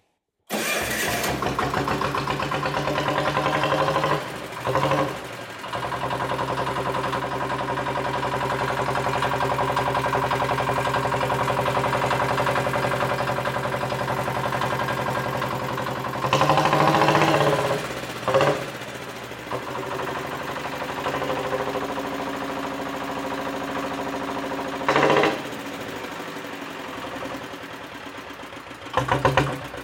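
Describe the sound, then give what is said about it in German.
A vintage 12 hp Lanz tractor engine, built in 1921, with a single piston of 10,388 cc, is started and runs loudly and steadily with a low, throbbing mechanical drone, interrupted by a few brief bursts of louder clatter. “Ein 12er Lanz, ja. 12er Lanz heißt heißt 12 PS, ja. Werden wir mal anlassen.”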